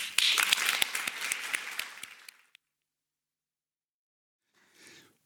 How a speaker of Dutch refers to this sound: Nou, nog een keer een warm applaus.